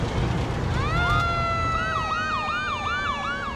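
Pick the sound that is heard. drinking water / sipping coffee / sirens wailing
sirens wailing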